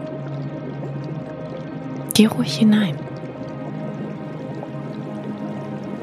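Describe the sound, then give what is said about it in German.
A short burst of bubbling, gurgling warm spring water rising from deep in the earth at a hidden geyser among glaciers and snow-covered mountains, under a second, surrounded by a calm voice speaking over a steady low background. “Tief aus der Erde kommt die warme, sprudelnde Quelle.”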